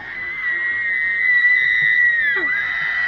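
A shrill, piercing scream holds one high pitch for about two and a half seconds, then slides sharply downward and breaks off, loud over a low rumbling background.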